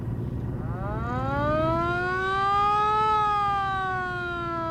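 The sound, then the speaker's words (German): A car's siren, switched on in traffic, winds up from low to a high wailing tone, holds, then begins to fall, loud over a steady low rumble of traffic and engine noise. “Verdammt, dieser Verkehr. Ich schalte besser die Sirene ein.”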